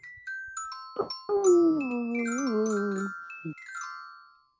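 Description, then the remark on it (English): Bright bell tones chime and overlap repeatedly, while a long, wavering, howl-like whine rises through the middle before fading, leaving the ringing to trail off. “They had a lot of fun with bells in that movie.”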